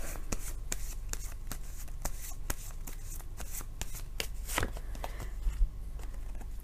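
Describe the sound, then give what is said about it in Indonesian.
Advice cards being shuffled, a rapid series of crisp papery flicks and riffles with a few sharper taps near the end, fairly quiet and with no voices. “Kartu nasihat”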